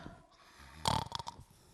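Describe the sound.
A voice imitates snoring with one loud, rasping snort followed by a few shorter rattling bursts, brief, with no other talking.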